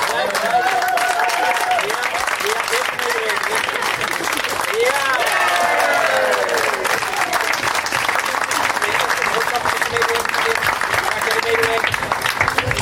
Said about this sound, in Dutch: En dan gaan we samen Laplace openen in de Efteling. Daar gaan we. 7, 6, 5, 4, 3, 2, 1. Blijf klappen, blijf klappen.